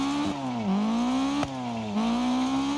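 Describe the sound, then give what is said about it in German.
A rally car engine in a video game drones loudly and steadily, its pitch rising and dropping in repeated revving swells as the car slides and skids along the roadside, with game-like engine tone and no voices. “So, ich schleudere hier einfach nur am Straßenrand rum.”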